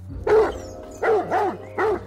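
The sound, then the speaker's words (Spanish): A large, bad-tempered dog barks four times at two sisters as it approaches and chases them, loud, in short deep bursts with uneven gaps between them. No other sounds or voices accompany it. “Ellas se alejaban lentamente de él, pero pronto aquel perro enorme empezó a perseguirlas.”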